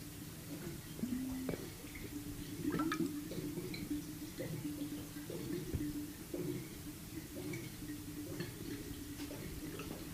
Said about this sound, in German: Und du hörst es einmal ganz ruhig. Überall gärt was und blubbert was.